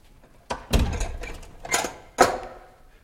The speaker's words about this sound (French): Referme la porte.